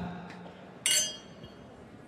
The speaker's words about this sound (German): Stößchen. Stoß mal mit uns an.